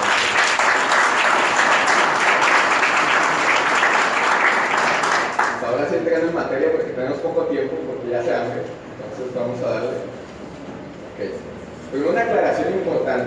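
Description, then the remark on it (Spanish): A crowd at a business training session claps loudly in a dense, steady burst for about five seconds to thank the group's "diamonds", then the applause fades beneath a voice that begins talking while scattered clapping lingers. “Primero que nada, quisiera agradecer a nuestros diamantes y les a dar un aplauso, por favor.”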